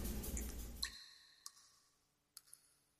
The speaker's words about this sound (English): Stop banging on the pipes. What's going on out there? It's probably because it's really hot in the city,